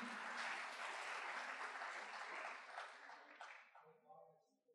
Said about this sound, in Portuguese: Você pode aplaudir o Senhor aí por essa palavra, por esse texto.